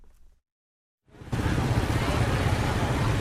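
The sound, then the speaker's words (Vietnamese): After a short faint rumble and a moment of silence, loud, dense noise of the busy Hoa Cuong wholesale market in Hai Chau district, Vietnam, swells in early in the morning before Tet, with trucks rumbling as they bring goods from various places and steady bustle of crowds throughout. “Chợ đầu mối Hòa Cường, quận Hải Châu tấp nập xe tải tiếp tục chở hàng từ các nơi đổ về.”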